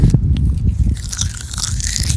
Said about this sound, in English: here's the leaves creaking